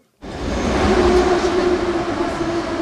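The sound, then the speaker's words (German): Steady, broad rumble in the mezzanine of an underground metro station in northern Kharkiv, cold and drafty, with a low mechanical drone and faint murmur of voices, like a train running. “Die ältere Dame sitzt im Zwischengeschoss einer U-Bahn-Station im Norden von Kharkiv.”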